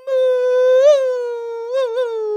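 A single long wolf howl holds a steady, clear pitch for a couple of seconds, with a couple of small wavering rises near the middle and end. It is loud, with no talking.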